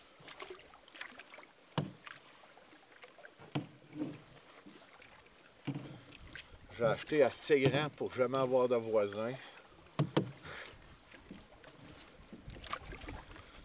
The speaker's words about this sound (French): Je m'endors le soir, c'est le bruit de la chute que j'entends. C'est des rapides, là ça, ça prend deux minutes. tu te concentres là-dessus, là, pouf, t'es parti, tu coules avec l'eau, tu pars avec la rivière.